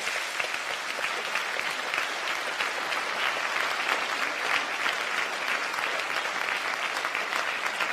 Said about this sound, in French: Eh bien, ça me fait plaisir de voir que vous applaudissez ça, parce que ça veut dire que vous comprenez, comme moi, l'importance des symboles et de l'histoire.